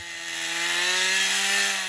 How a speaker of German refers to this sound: seine Motorsäge durch einen dicken Stamm. Die Reste eines Baumes der mal zu einem Wald gehörte, am Rande des Virunga-Nationalparks im Osten Kongos.